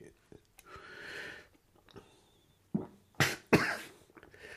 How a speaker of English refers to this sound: coughing fit going on